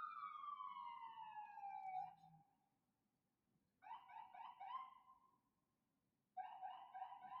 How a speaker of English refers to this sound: There's an ambulance outside.